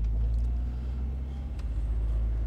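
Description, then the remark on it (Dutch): A car drives over a railway crossing in the Netherlands, on the way to the Museum Aquarium in Delfzijl, heard from inside: a steady low engine and road rumble with a couple of brief, soft jolts as the tires cross the rails. No one speaks. “Oh, spoorlijn over.”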